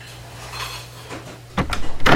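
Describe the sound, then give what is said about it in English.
Kitchen bustle on a cruise ship: a low steady hum, then a quick run of sharp knocks and clattering like chopping, dicing and dishes being handled, growing louder toward the end. “Hey, everybody, stop your chopping and dicing.”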